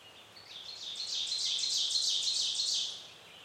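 A sharp, rapid bird trill of high repeated notes swells for about two and a half seconds, then fades, over a faint, steady hush of soft wind.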